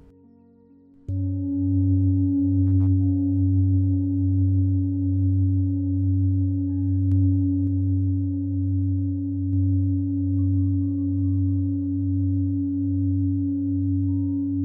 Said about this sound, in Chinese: 好了，所以你现在听到的声音就是颂钵的声音，会唱歌的婉。